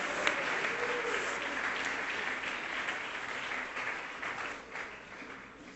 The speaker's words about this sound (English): Let's all jump to our feet and clap our hands and thank God that He's prepared something better.